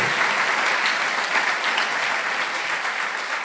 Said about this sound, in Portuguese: Sim, aplaudimos o Senhor. Obrigado, Senhor.